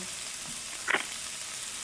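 Sausage for sausage chili sizzles in a personal electric frying pan with a steady, fairly quiet hiss, broken by one brief louder crackle or clink midway through; no one speaks.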